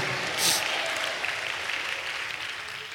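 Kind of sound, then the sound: crowd, audience applauding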